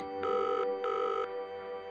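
Two steady electronic ringback tones, each lasting about 0.4 seconds with a short gap between, sound clearly over a faint background hum, the signal of an outgoing phone call.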